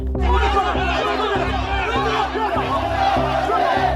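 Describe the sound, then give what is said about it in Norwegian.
A dense crowd of frustrated small savers and homebuyers shouting and clamoring together outside the headquarters of the company Evergrande, demanding their money back, loud, with overlapping yells and agitated chatter filling the whole scene continuously. “Utenfor hovedkvarteret til Evergrand samla frustrerte småsparere og boligkjøpere seg og ropte at de ville ha pengene sine tilbake.”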